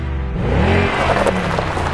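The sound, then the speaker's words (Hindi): A car engine rumbles, its pitch rising and dipping as it revs and slows, then settles into a steady idle as the car pulls up and stops outside a cafe in South Delhi, with no voices present. “कि तभी उसकी नज़र कैफे से बाहर गई जहाँ अभी अभी एक गाड़ी आकर रुकी थी”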